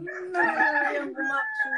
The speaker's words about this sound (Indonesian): Nah, ayam, ya. ayam, ayam beneran, ayam beneran sih. Enggak, tapi kok ayam ya, eh? ya ayam lah beneran lah ya tapi jam segini berkokoknya gitu harusnya kan ya pagi gitu